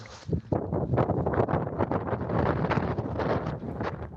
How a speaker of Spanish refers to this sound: Pues sí que se escucha, sí que se escucha ese, viento. En fin, bueno, pues atención, ya no solo por la lluvia ahí donde llueve, también por el viento esta mañana.